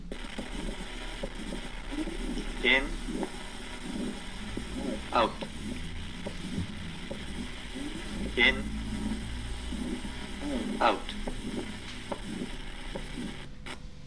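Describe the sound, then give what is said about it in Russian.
A pulmonary valve stenosis heart murmur heard as a steady, low whooshing pulse repeating with each heartbeat, while a voice briefly calls out breathing cues four times. “Шум при стенозе клапана легочной артерии.”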